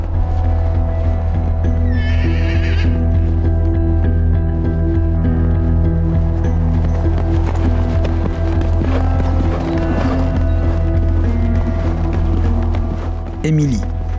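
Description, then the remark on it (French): A horse whinnies briefly near the end at a stable, rising over a steady, humming musical drone, with a short bright burst of sound earlier and faint clattering noises in the background. “Ce jour-là, j'étais à l'écurie comme quasiment tous les jours pour m'occuper des, chevaux, c'était dans la matinée.”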